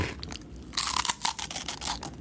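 Crunchy rusk being chewed, a rapid run of dry, crackling bites that starts after a brief quiet moment and continues steadily, with no one talking.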